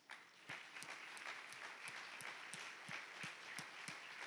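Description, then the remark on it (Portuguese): An audience claps for Jesus during a healing sermon, applauding steadily: a dense wash of many hands clapping, with a few sharper, louder claps standing out at a roughly regular beat throughout. “E se você crer que você está curado, como aquela mulher foi curada, que o caminho da doença saiu e que entrou o caminho da saúde, bata palmas para Jesus.”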